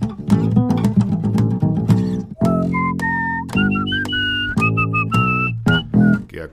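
A short, bright intro tune, plucked and whistled: clear whistling over a plucked string accompaniment, with sustained whistled notes gliding over steady low strums, fairly loud, no voices.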